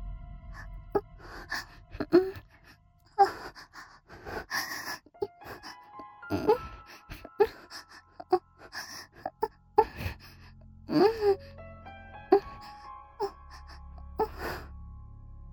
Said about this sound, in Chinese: 他开始发出了呻吟的声音